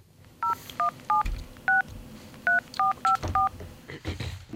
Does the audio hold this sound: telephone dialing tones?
yes